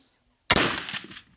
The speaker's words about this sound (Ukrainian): По зручності, по готовності три постріли, вогонь з одного положення. Дихання, плавний спуск.